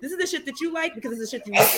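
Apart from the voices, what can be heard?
sneeze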